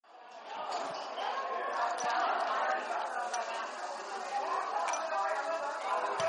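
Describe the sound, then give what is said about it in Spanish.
Busy ambience at the bar Lacayos Proletariados: a steady wash of overlapping crowd chatter with scattered sharp knocks and clinks of glassware, continuous and moderately loud throughout, no single voice standing out. “Bueno, pues seguimos aquí transmitiendo desde el bar Lacayos Proletariados.”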